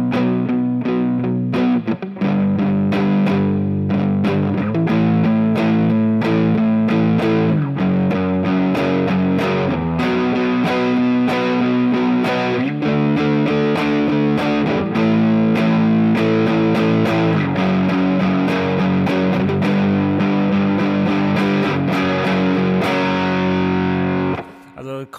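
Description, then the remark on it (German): Heavy overdriven electric guitar playing a chunky riff with sustained, gritty distorted chords in a steady repeating pattern, loud and continuous, with no talking over it. “kamen auch schon so relativ schwergewichtige Töne rüber, ne?”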